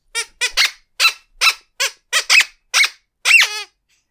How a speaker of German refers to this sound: ein Quietschetusch.